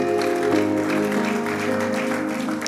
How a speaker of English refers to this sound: Give the Lord a good clap offering somebody.